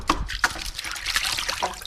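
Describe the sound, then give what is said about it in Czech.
A hand dips into a basin of water where rattan cane is soaking for basket weaving, making a few light splashes and sloshes followed by soft trickling and dripping as it moves around in the water. “Už si jdeme šáhnout do té vody.”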